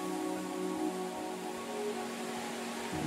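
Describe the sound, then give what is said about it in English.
A steady, dense roar of falling water from the Rain Vortex, the world's tallest indoor waterfall, at Jewel Changi Airport, heard at its mouth, the Oculus, with water flowing at almost 38,000 litres per minute. A faint low mechanical hum sits beneath it and there are no voices. “You're listening to the Oculus at the mouth of the world's tallest indoor waterfall.”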